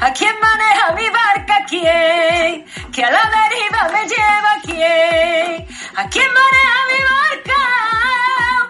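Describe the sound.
A young girl sings a melodic pop song in Spanish, her voice loud and close over backing music with a steady, driving drum beat.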